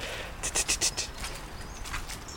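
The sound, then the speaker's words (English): A robin gives a quick series of harsh, spitting alarm calls at the recordist, about five sharp clicking bursts close together, moderately loud over a faint outdoor background. “The Robin here just sort of spitting at me a bit.”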